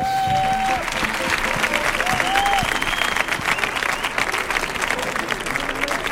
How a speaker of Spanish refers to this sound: Fuerte el aplauso